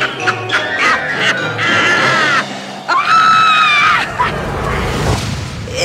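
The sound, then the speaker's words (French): A woman lets out a shrill, witch-like scream, starting with several short piercing cries before two long, wavering screeches, loud, over a low rumbling background. “Son rire, son cri, ça n'a pas de sens.”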